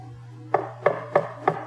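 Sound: knock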